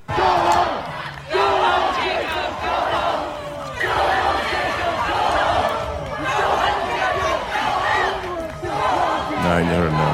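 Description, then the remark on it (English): A dense, loud crowd at a rally in Minneapolis shouts and chants in unison, jeering as Mayor Jacob Frey is thrown out for not committing to defunding the police; overlapping jeers and yelling swell in waves throughout, continuous with no pauses. “Mayor uh, Jacob Frey of Minneapolis, he showed up at the rally in Minneapolis over the weekend, and when he would not commit to defunding the police, because that's what these these animals wanted, he was thrown out.”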